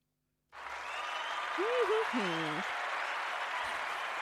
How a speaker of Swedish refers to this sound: Förlåt, men den var sjukt värd en applåd.